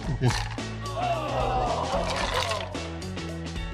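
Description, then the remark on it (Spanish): Buchanan's 12-year-old whisky pours steadily into a red cup for a few seconds, a continuous gurgling trickle heard over background music. “Me lo serví en vaso rojo, así como fiesta buchona.”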